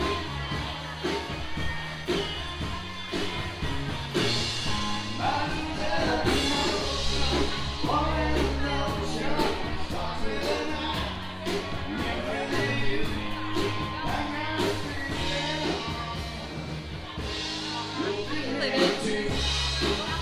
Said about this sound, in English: We're at the rodeo. I've never been. It's, the horses are out. Everyone's in a great mood. It's going to be a fantastic night.